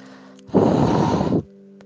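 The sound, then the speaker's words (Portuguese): A voice imitates a hot breath in the right ear: a single loud, rough exhale lasting under a second, breathy and noisy, with a faint steady hum before and after. “E do meu, meu lado direito, no ouvido direito, eu senti uma respiração assim, ó. Um bafo quente e uma respiração assim, ó.”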